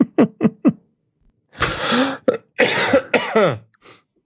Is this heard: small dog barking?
no